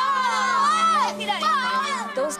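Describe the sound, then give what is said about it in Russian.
Several children shout and yell at once under a window, calling for a friend to come out and play, their high-pitched voices overlapping in a loud, continuous clamor with rising and falling cries. “Я хочу, чтобы вы прекратили орать у меня под окном.”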